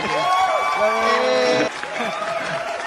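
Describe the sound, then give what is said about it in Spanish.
An iCarly canned applause sound effect welcoming a guest: a loud crowd clapping with cheers and rising whoops, dropping slightly in volume partway through the roughly three-second burst. “Quiero aplausos de iCarly.”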